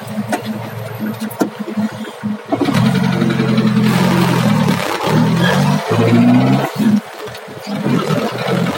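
A car engine turns over and catches, then settles into a steady running hum with slight fluctuations in revs. No one speaks.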